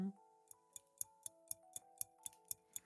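A clock ticks steadily, about four crisp ticks per second, clear, over quiet sustained musical tones in the background.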